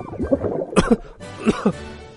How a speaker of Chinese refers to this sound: 她咳嗽不停，她好想哭啊，可是 不能哭。